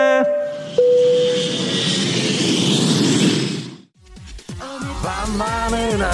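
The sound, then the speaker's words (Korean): An airplane takeoff sound effect played as a mock flight to Dubai departs: a steady roaring rush of jet engine noise with a whining tone at the start, lasting about four seconds before cutting off as music begins. “자, 그럼 우리 비행기 이륙합니다.”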